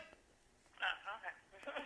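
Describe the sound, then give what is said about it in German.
A ringback tone of an outgoing call to a landline that rings in an apartment, heard through the phone line, thin and band-limited, with a few short tonal bursts standing out against faint line hiss. “Ich rufe übrigens auf Festnetz an, das heißt, es wird jetzt schön laut in der Wohnung klingeln.”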